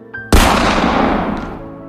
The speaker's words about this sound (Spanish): Pero solo oyes el disparo del arma antes de perder la conciencia y la vida.